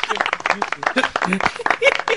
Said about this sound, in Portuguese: Genial. Aplausos cibernéticos.